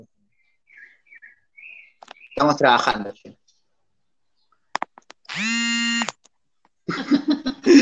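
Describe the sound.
A mobile phone ringtone plays a short run of high, chirpy melodic notes, followed by a brief spoken remark, a click, a steady buzzy electronic tone lasting about a second, and then more talking.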